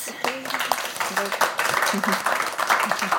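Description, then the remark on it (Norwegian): A crowd applauding, a dense steady patter of many hands clapping at once for about three seconds, with a few voices calling out underneath. “Da får vi en applaus.”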